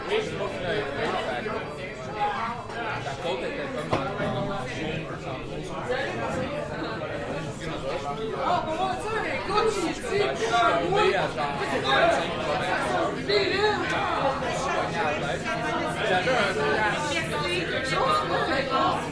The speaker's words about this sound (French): Il y a du monde aujourd'hui. On l'entend très bien ici au travers. Euh, oui. C'est effrayant. J'ai jamais vu autant de monde aujourd'hui. Donc c'est la première fois ce soir que c'est si rempli.